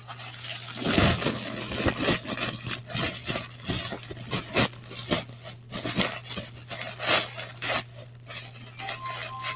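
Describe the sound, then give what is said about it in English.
Crisp crinkling and tearing of packaging as a baguette is unwrapped, with irregular bursts of rustling over a low steady hum and no one speaking. “I have some bread here. Just a baguette. Let me get out of this. Oh, here's some ASMR for you guys.”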